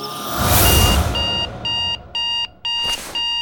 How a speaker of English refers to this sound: my damn alarm clock.